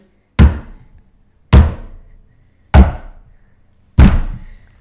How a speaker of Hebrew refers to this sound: אבל הוא לא הצליח לחשוב על סיפור בשביל צפרדי. ואז קרפד התחיל לדפוק את הראש בקיר.